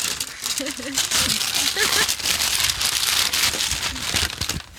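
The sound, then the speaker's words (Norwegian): Continuous crinkling and tearing of stiff brown wrapping paper as a gift, wrapped in a shop, is unwrapped, with brief voices murmuring underneath. “Og så pent pakka inn. Har du fått tid å pakke den inn i butikken?”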